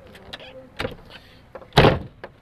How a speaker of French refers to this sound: J'arrive pas à fermer la porte.